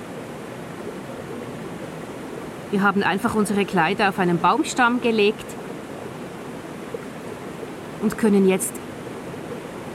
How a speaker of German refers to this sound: Man kann es wirklich fast nicht glauben, wir sind hier in der Schweiz, mitten im Wald und da kommt einfach aus einem Felsen warmes Wasser, das nach Schwefel riecht, wie in einem Heilbad.